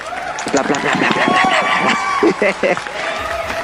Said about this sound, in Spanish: Aplausos, por favor.